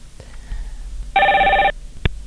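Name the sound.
telephone ringing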